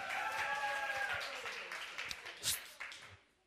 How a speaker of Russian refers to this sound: Давай дадим громкий аплодисмент.